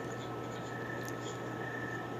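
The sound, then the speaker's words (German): A faint, steady chorus of crickets chirping at night, droning continuously in the background with no one speaking. “Aber heute äh, machen die Grillen live mit.”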